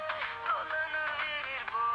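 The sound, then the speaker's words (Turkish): A phone ringtone plays a bright electronic melody of sustained, gliding tones, steady and fairly loud throughout the two seconds with no one talking. “Orada çalıyor canım.”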